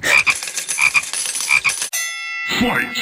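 A toad croaks in a rapid, raspy run of pulses, close and fairly loud, broken by a short ringing tone before the croaking resumes. No one speaks.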